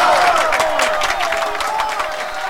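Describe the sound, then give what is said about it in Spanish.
A burst of dense crowd applause sound effect with scattered cheering, played on the radio as 'el aplauso del día' in the Operación Valladita de la Sabrosona segment, steady and loud throughout, with a faint sustained tone running underneath. “En Operación Valladita de la Sabrosona, el aplauso del día.”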